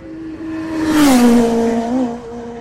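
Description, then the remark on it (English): A racing vehicle on the TT course roars past, its engine pitch sliding downward as it goes by, with a loud rushing swell in the middle of the pass and steady motor drone continuing after. “Just a matter of inches from the TT course, as you can probably hear.”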